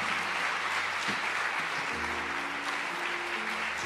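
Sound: big round of applause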